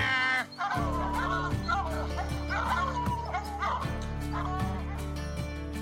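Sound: hunting dog barking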